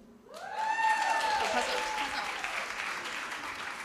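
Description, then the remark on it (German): An audience breaks into loud clapping, those who have beer clapping when asked, that swells quickly and holds steady, with a few whoops and cheering voices rising over the dense applause before it gradually thins. “Wer hat denn alle, einmal klatschen, wer hat alles Bier?”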